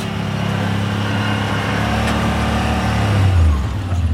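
A heavy vehicle engine rumbles steadily, a deep droning hum that briefly rises in pitch near the end as it revs, with no voices.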